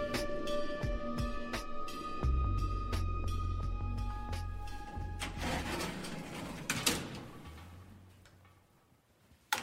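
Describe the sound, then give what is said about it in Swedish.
The door of a beautiful apartment in central Stockholm is unlatched and opened by Alexandra and Alexander Andoril, with sharp metallic clicks and a low rumbling scrape, then a final thud. Faint ticking sits underneath, and no one speaks. “dag i centrala Stockholm öppnar Alexandra och Alexander Andoril dörren till en vacker lägenhet.”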